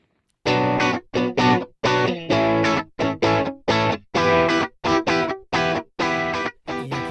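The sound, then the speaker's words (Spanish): A short jingle for a radio programme's jobs (empleo) section: about a dozen punchy, staccato musical bursts in a quick rhythm, bright and heavily processed with a distorted, chorused tone, played loud with no talking. “va sonando la cortinilla de, empleo, el sonido de empleo.”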